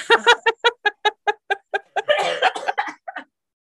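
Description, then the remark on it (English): A person choking on mashed potato, a quick run of strained, voiced gasps and hiccuping bursts that breaks into a rough, spluttering cough before trailing off. It is fairly loud. “that, friends, is the sound of … choking on mashed potato”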